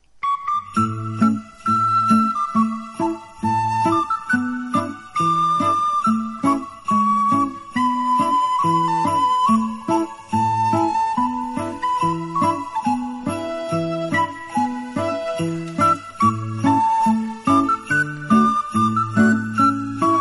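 An instrumental rendition of a traditional folk tune plays throughout, a bright melodic lead line moving over steady bass notes and chords, full and close, with no voices.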